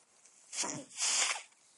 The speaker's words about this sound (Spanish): perdón, es que voy a estornudar y no sé cómo detenerme, pero en fin, eh, lo haré rápido, perdonar.